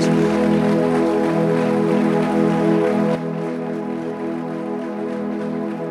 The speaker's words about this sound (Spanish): Dales aplausos.